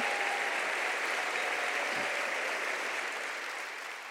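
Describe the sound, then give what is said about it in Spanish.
Sustained applause from a sizable audience in memory of Marfa Cabrera, a dense steady clatter of many hands clapping that holds for several seconds and tapers off only slightly toward the end. “¿Y qué tal si damos un aplauso en memoria de nuestra querida hermana Marfa Cabrera?”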